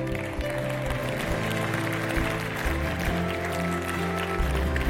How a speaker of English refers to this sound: Can everybody give everyone an applause who just raised their hand?